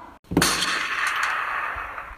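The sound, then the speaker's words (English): A single loud gunshot sound effect cracks out after a brief silence, followed by a long, bright echoing tail that slowly fades over the next two seconds, with no voices. “heard round the world understand how a single gunshot could be heard all the way around the world.”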